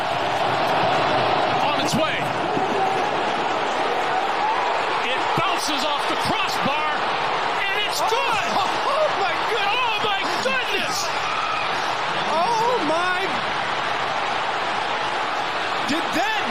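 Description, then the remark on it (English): A basketball arena crowd roars wildly and without letup, a dense wall of shouting and cheering voices, with sharp thuds and squeaks cutting through now and then. “Crowd is going nuts.”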